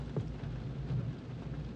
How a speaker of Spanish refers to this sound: Y es la razón por la cual hoy me acabo de hacer 200 kilómetros en coche, está lloviendo lo que no puede llover en otro momento y llueve ahora mismo, para luchar por una oportunidad.